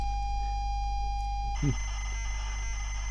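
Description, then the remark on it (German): Modem-like data tones of computer code broadcast over official radio waves: a steady mid-pitched beep holds for about a second and a half, then switches abruptly to a higher whine over a harsh, hissing burst of digital noise, with no talking. “und jetzt wurde auch Code gesendet. Genau. Und das hörte sich dann in etwa so an.”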